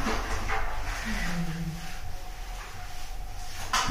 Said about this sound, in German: Katzen machen hier komische Geräusche. Merkwürdig.